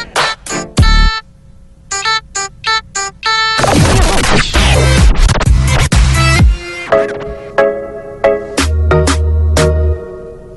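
A loud song plays on its own, opening with bright, choppy repeated notes, swelling into a dense, noisy crashing stretch, then settling into sustained tones over a deep bass.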